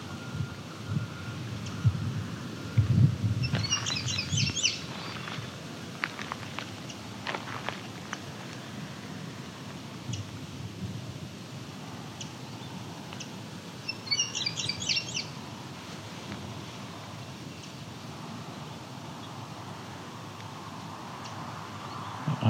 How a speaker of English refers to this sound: We've got a song sparrow's come up.